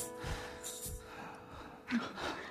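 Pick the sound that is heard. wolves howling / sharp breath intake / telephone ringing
sharp breath intake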